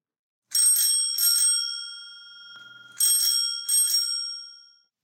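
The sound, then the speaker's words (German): A bright, clear bicycle bell rings in two quick double rings, separated by a pause, each ding leaving a sustained metallic shimmer that slowly fades. Loud, with no voices. “Genau, das war eine Fahrradklingel und zwar eine hell tönende Fahrradklingel.”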